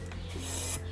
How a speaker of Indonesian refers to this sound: Malam pun tiba. Terdengar suara langkah kaki di rumputan kering